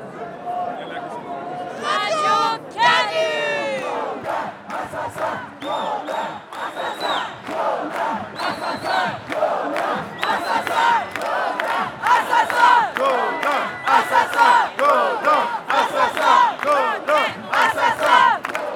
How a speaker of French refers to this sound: Mardi 14 novembre, le silence de l'hommage a fait place à la fureur et au cri lors de la marche de la colère. Cette marche a été sévèrement réprimée. Une camarade marseillaise y a laissé traîner son micro.